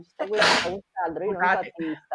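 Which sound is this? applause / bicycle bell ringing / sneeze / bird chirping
sneeze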